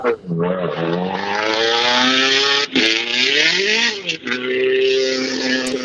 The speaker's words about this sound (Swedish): samtidigt som vi får höra lite rallybilar i alla fall.